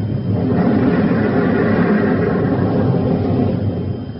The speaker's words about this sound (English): What's happened? Oh, a cave in. Uh, look, the entrance of the cave is blocked gosh, it's so dark in here.